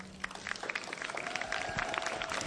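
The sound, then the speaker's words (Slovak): Audience applause for grandmothers and grandfathers who lead their grandchildren to faith builds into a steady wash of many hands clapping, dense and fairly loud, with a faint sustained tone running underneath and no one speaking. “Zaslúžia si potlesky, ja si myslím”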